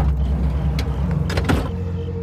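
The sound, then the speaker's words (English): A car's driver's side door opens, with a few sharp mechanical clicks and a brief clunk over a steady low rumble of a vehicle interior; no one speaks. “He left through the driver's side door.”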